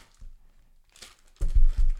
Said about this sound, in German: Das war eine Mülltüte, die ich hier habe. Okay, mach nochmal den Sound.